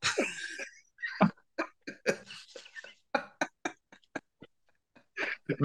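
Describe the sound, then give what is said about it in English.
Someone imitates an albatross call with a run of harsh, throaty bursts and clicks, irregularly spaced and separated by brief silences, ending in a louder cluster. “might be that might be the most intimidating bird call I've ever heard.”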